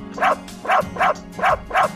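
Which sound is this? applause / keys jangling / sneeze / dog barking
dog barking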